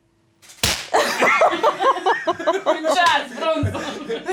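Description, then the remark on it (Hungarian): A single sharp slap cracks out, immediately followed by a burst of exaggerated, theatrical vocal reactions and chuckling that fill the rest of the moment. “Figyelj, én így reagálnék egy pofonra, színész lennék.”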